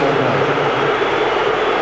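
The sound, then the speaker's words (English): A stadium full of Tottenham Hotspur fans booing manager Nuno's decision to substitute Lucas Moura, in a loud, unbroken roar that holds steady for the whole two seconds, a dense wash of many voices with no individual speech standing out. “Booing the decisions of Nuno, and not just a little bit, by the way.”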